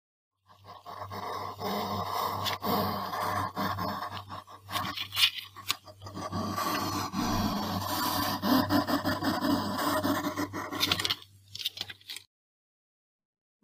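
A hedgehog smacks and crunches as it eats, in a steady stream of wet chewing clicks for about twelve seconds over a low constant hum, then it stops.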